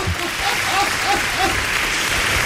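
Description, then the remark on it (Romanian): Steady, dense audience applause fills the whole stretch, a broad wash of many hands clapping at an even level, with a few faint voices or whoops rising briefly above it. “Încă o dată aplauze Pentru acest proiect extraordinar”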